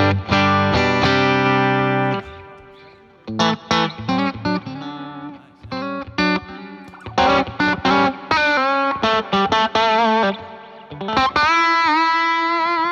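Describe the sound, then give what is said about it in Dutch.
A green Kaufman electric guitar plays through heavy effects, with distorted, chorused tones: sustained chords at first, then choppy bursts of riffs and bends, ending on a long ringing note. No one speaks. “Die paar keer de laatste tijd Ja. dat we gingen spelen, was het deze gitaar.”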